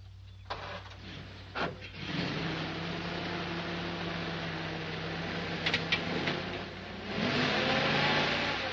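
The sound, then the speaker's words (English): A car engine turns over with a few clunks, then hums and revs steadily before surging louder as the vehicle pulls away. No one speaks. “Hey, mister, ain't that your car?”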